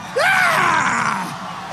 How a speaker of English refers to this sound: Dean's campaign fell apart even before he left Iowa, and he'll always be remembered for his famous scream.